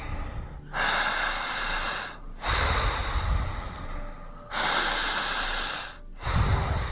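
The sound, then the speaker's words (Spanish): Slow, deep breathing during a guided relaxation, with long airy inhales and exhales alternating in a steady, unhurried rhythm, about four breaths in all, with no talking. “Siga respirando.”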